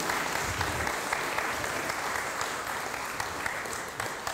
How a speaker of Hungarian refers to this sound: Egy nagy tapsot kérünk.